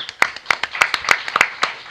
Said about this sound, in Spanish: Ven para acá, Joel. Un aplauso para Joel.